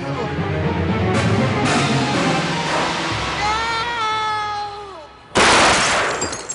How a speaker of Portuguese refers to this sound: Não, aí veio aquele tiro.